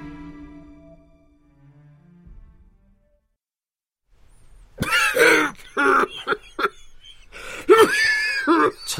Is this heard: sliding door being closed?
no